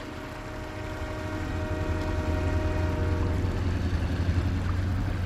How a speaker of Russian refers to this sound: Герой уже хотел было присоединиться к нему, но тот услышал звук проезжавшего мимо поезда.